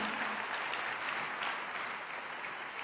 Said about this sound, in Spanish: Démosles un fuerte aplauso a todas las personas que están allá en las últimas filas.